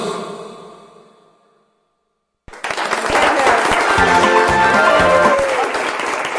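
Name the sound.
applause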